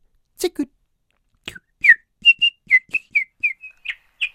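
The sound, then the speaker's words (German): A person whistles a nightingale-like bird song, a quick series of bright, sharp chirps and trills in an irregular rhythm, clear, preceded by a couple of short breathy clicks. “Jorinde war in eine Nachtigall verwandelt, die sang”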